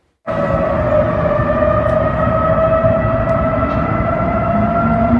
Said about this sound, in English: Hackers got into the emergency notification system in Dallas and set off 156 sirens.